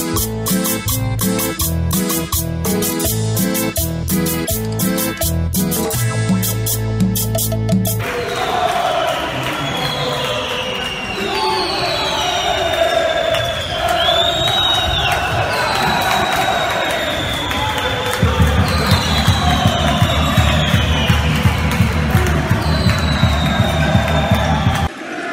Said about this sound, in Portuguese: Vamos para Portugal então, Matias, que é a torcida do Benfica vai cantar.